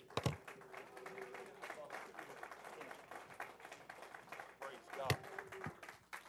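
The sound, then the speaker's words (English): A crowd claps steadily for the Lord while being seated, in a dense, continuous patter, mixed with murmuring voices and a couple of sharper, louder bursts standing out from the rest of the applause. “Would you clap your hands while you're being seated and just give the Lord?”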